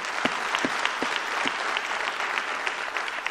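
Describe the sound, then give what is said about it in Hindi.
A crowd at a training session applauds attendees who have come back to the training again. It claps steadily for a few seconds, a dense wash of overlapping handclaps with a few sharper individual claps standing out near the start, with no voices. “how many people जो last training में भी थे जिन्होंने रिपीट इस बार आए हैं मैं चाहता हूं आपके लिए शानदार तालियां होनी चाहिए कमॉन वेरी गुड”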